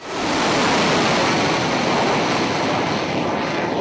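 A cruise missile launching from a warship in a United States strike on Yemen gives a loud, continuous rushing roar, a broad jet-like hiss that holds steady for several seconds and then cuts off abruptly. No voices.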